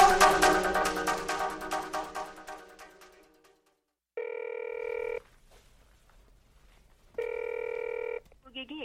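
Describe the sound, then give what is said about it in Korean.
A phone line rings unanswered: two steady electronic ring tones, each about a second long with a pause between, following a resonant chime-like tone that fades out at the start; the call is not picked up and goes toward voicemail. “전화를 받지 않아 삐 소리 이후 음성 사상. 아, 얘는 왜 전화를 안 받아?”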